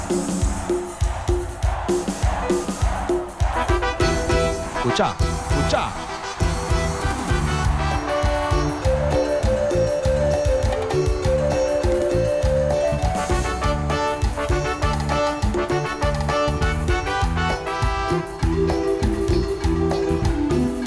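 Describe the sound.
A lively tropical cumbia band plays loud and close, with steady percussion driving a bright, full melody throughout, and a voice briefly calls out over the music near the start.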